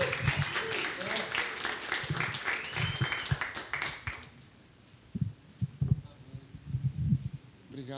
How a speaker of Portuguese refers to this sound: Eu quero te convidar a recebê-lo com uma salva de palmas.